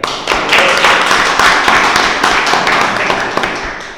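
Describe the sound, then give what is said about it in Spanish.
A small group of radio team members breaks into steady, fairly loud applause welcoming a new member of the team, many hands clapping densely together for a few seconds before it starts to thin out, with no one speaking over it. “Así que, como recibimos siempre a todos nuestros nuevos compañeros, un aplauso para él.”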